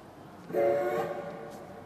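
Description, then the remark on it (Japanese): A working model of a steam locomotive pushing coal wagons up the Temiya elevated coal-loading pier, built in Meiji 44 for shipping coal, gives a single short whistle, a steady, fairly low harmonic tone lasting about half a second, over a faint continuous rumble with no talking. “機関車が石炭車を押し上げてきますこの高架桟橋は海面からの高さが約19メートルもあり現在の5階建てビルほどの高さになります”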